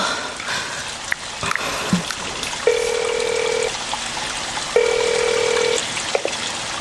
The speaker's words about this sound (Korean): 윤지는 선에게 전화를 걸었다. 휴대전화가 꺼졌다는 메시지만 반복해서 흘러나왔다.